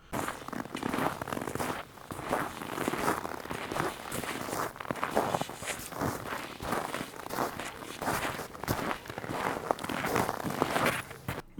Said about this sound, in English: perhaps you don't know what this sounds like, but this is the sound of somebody walking in the snow. It's actually pretty. Uh, it's pretty comforting. It's a nice sound.